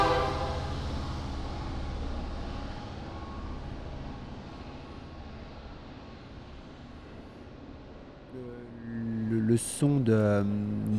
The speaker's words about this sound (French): train, c'est un train, c'est le train de Tucson.